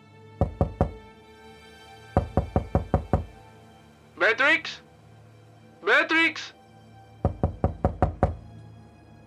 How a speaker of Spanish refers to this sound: Ya preocupado, llamó a la puerta y gritó su nombre.